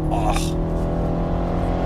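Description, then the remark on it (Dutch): A white BMW 1 Series with automatic transmission, driven in drive at about 120 at full throttle, roars steadily: a dense, loud, low drone with layered harmonics holding for two seconds, and a brief burst of higher hiss near the start. “En nu rijd gewoon in drive, even 120, even vol gas.”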